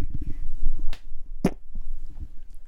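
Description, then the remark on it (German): A loud fart right into the microphone: low, sputtering rumbles that come in bursts, broken by a couple of sharp, crackling pops partway through. “der furzt ins Mike”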